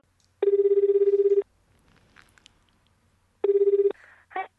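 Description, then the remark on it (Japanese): A phone line ringback tone from a call to the JA Matsumoto farm direct-sales shop in Matsumoto, Japan, sounds twice. It is a steady buzzing purr of about a second each, separated by a pause with faint clicks and line noise, ending in a short burst. “JA 松本ほうがやってるあの直売所があったんですよ、はいはい、なんでそこに、あの電話かけてみて、はいはい、で電話の音声があるんで”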